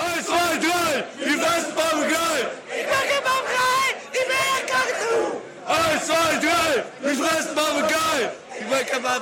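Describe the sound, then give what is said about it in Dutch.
A large crowd of football supporters chants a rhythmic, repetitive song in unison, loud and steady, with bursts of massed voices rising and falling across the stadium. “Een, een gek lied met een papegaai.”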